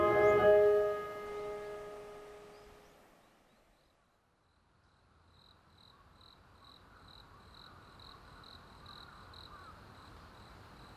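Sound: night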